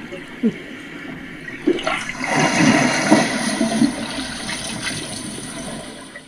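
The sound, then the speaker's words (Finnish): Grey seals calling in surface water in the Åland archipelago: low, rough grunting sounds, somewhat pig-like, repeat over a steady wash of splashing, gurgling water that swells after the first couple of seconds. “Eli nämä äänet ovat harmaahylkeen ääniä pintavedessä Ahvenanmaan saaristossa.”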